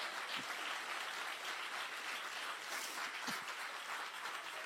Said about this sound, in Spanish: Si les, mire, si usted entendió el mensaje, déle el aplauso fuerte al Señor.